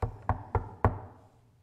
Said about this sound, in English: Her feet are swollen, her belly is grumbling, and she raps on the door.